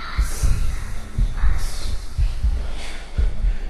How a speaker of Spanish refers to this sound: Los latidos del corazón resuenan en el ataúd, marcando los segundos que se desvanecen inexorablemente.